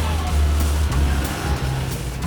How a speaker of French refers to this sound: Nous sommes à Cincinnati, dans l'Ohio, par une froide nuit d'hiver, au milieu des années 1920. Il est 5 heures du matin lorsqu'une automobile s'engage dans une rue enneigée.